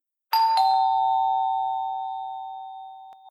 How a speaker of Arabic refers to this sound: واخيرا وصل المصعد الى الطابق الثامن وخرج الجميع ومعهم الشاب الغريب الذي راح يقرع الجرس بسرعه قائلا